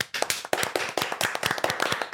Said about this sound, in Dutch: Graag een daverend applaus trouwens.